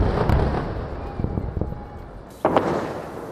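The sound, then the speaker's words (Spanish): Several muffled explosions from Israeli bombing in Gaza in the morning thud at uneven intervals against a rumbling background, with one louder, sharper blast near the end. “Siete días sin escuchar los bombardeos israelíes han terminado y de nuevo el sonido en Gaza esta mañana es el de las explosiones.”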